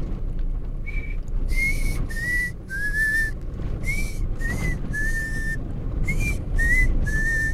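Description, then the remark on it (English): A person whistles about ten short, breathy notes in loose groups of two or three, imitating a pangolin's whistle, fairly loud over a steady low rumble. “That's the way the, the whistle sounds.”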